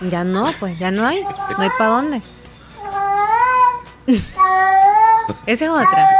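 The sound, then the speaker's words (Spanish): A cat meows loudly, giving two long, drawn-out wailing meows. People talk and laugh just before and around the calls. “Este es otro gato.”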